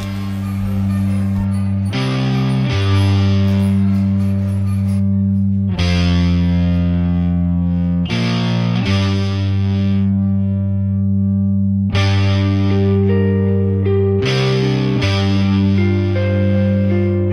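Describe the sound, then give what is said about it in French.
A heavy, distorted electric guitar riff plays loud, with thick sustained power chords that shift every few seconds in a slow, driving pattern. It is the huge riff ending a music track that begins as a calm, ambient slow song. No voices. “ce titre démarre comme un slow très calme, ambiant, et ça termine avec un énorme riff”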